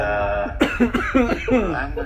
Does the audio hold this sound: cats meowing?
no